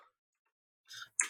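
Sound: keyboard typing clatter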